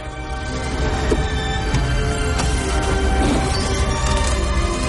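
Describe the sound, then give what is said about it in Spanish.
Sheet metal of a car door bending as a man pulls on a corner of the door to force it open, a dense, steady grinding and groaning with a few sharp creaks and clicks scattered through, loud throughout with no voices. “La chapa se dobla.”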